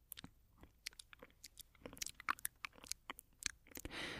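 Binaural, intimate mouth sounds: a quick run of wet clicks, smacks and crinkly crunches, irregular and sharp, ending in a soft breathy rush. No speech.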